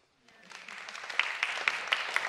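An audience breaks into applause, starting quietly and swelling into steady, dense clapping with a few sharper claps standing out near the end.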